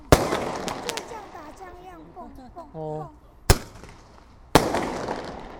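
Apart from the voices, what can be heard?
fireworks exploding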